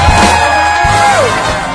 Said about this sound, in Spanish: Un aplauso fuerte para este participante, por favor.